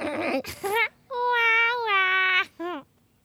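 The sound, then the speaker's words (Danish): Petting goats in their enclosure bleat: a short call, then a long, wavering, nasal bleat held for over a second, and a brief final bleat. The cries are fairly high-pitched and clear, with no talking. “Der er klappegederne.”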